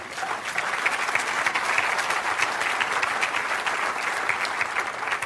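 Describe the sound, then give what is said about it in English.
Steady applause from a church audience clapping in agreement, many hands clapping in a dense, continuous patter that holds an even loudness for several seconds with no speech over it. “Somebody clap their hands, they agree with that.”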